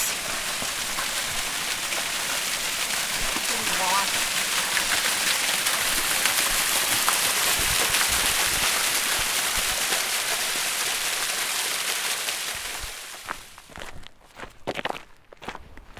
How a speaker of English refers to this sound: A small cascade. A small cascade of water that's just finding an uneven route down the cliff face and ending up right here in a little pretty, pristine, clean stream. Watching a nice little waterfall. Coursing over the rocks.